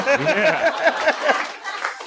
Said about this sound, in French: j'aimerais qu'on donne une bonne main d'applaudissements à tous ces humoristes-là